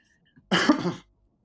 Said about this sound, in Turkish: Böyle kabur kupur öksürüyorsun şeye.